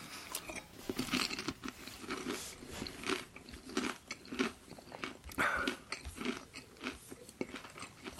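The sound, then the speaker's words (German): Crunchy snack being chewed in a steady run of crisp, crackling bites, with irregular sharp crunches repeating for several seconds and no talking over them. “Einmal Knabberzeug, ja? Mhm. Einmal knabbern.”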